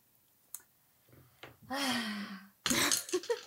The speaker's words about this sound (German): oh, jetzt ist mein Stift runtergefallen. Ja, das habe ich gehört.